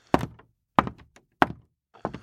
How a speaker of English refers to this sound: I listened to the sound of his boots hit the solid wood planks.